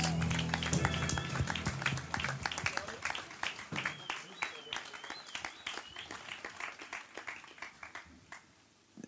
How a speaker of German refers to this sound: Applaus!